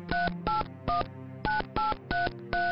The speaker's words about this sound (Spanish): Marcó el número.